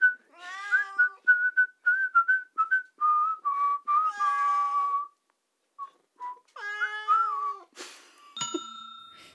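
A person whistles a tune of short and held notes while recording, interrupted by their cat, which hates whistling, yowling loudly with drawn-out, wavering cries, followed by a brief bright ringing tone at the end.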